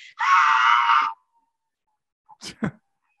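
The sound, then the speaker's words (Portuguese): A speaker reenacts screaming during a robbery: one loud, sustained, high-pitched shriek lasting about a second, followed after a pause by a few short breathy bursts. “Aí ela começa a gritar e eu comecei a gritar junto, aí começou.”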